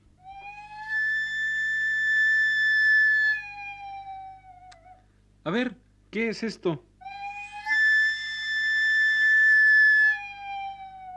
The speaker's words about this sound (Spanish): El carrito de los camotes. El camotero, eso es. ¿A qué no saben por qué suena el carrito de los camotes? Yo sí sé por qué suena el carrito de los camotes. Verán, el carrito tiene una caldera. La caldera produce vapor para cocinar los camotes,